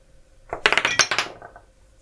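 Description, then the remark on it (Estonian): A die clatters across a hard tabletop in a quick burst of sharp clicks that bounce and slow to a stop, fairly loud, with no voices; it is rolled to see who rolls higher for initiative in a game. “aa, et kes suurema veeretab.”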